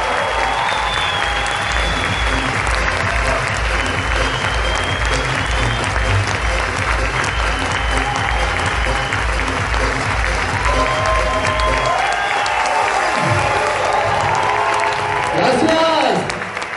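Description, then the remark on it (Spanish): Loud, sustained applause from a large standing crowd welcoming two people, a dense wash of clapping that holds steady for the whole stretch, with cheers and whistles rising near the end. “así que yo quiero que por favor se pongan de pie y recibamos con un fuerte aplauso, por favor,”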